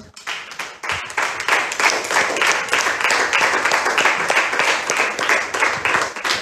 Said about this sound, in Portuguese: Aplauda o Senhor.